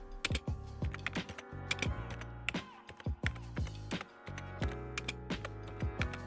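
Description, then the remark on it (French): Rapid typing on a computer keyboard while coding an artificial intelligence program, fairly loud, with irregular bursts of sharp clicks and brief pauses between them. Nobody speaks. “En même temps, là, je suis en train de coder l'intelligence artificielle, euh, puis j'intègre aussi les questions.”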